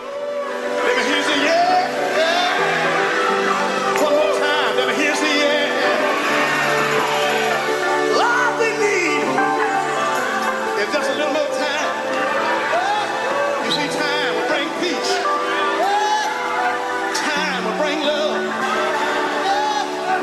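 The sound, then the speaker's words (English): An electronic pop song, the opening track of a new nine-track album by a British dance music group, plays loudly and steadily, with layered synth tones and sustained chords beneath what sounds like sung vocals gliding over the top, continuing without pause. “that's …. It's the opening track on this nine track album.”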